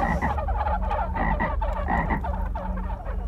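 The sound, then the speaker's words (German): A toad croaks repeatedly in a steady rhythm, each low, rasping call fairly loud, with no talking over it. “Und dann verwandelte er sich zuckend und zitternd, allerdings nicht in einen fetten, federlosen Hühnervogel, sondern in eine dicke, fette, klitschige Kröte.”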